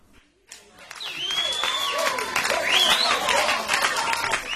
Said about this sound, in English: Yeah, when a song starts with applause like this, you start wondering what it is.